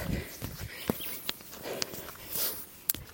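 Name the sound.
running footsteps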